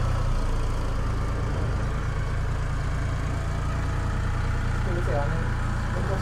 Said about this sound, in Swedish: En ganska ny, eh, fin liten Ferguson-traktor han har köpt som är skogsutrustad. Han hade dock en planeringsgropa på i fronten.